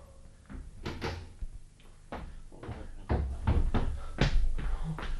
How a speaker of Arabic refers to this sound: آه، أغلق الباب وراك